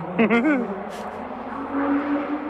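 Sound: car driving past outside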